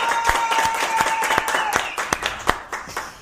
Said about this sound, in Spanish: Muchachos, gracias. De verdad, yo los vi en la mañana que vine. Fueron ustedes, ¿no? Muchachos, pues conteste pues. Aplausos a los muchachos.